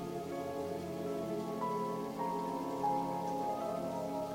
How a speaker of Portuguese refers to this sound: onde há uma paisagem natural, com plantas, árvores, flores, água. fundo tu escuta o barulho dos pássaros e o fluxo da água correndo.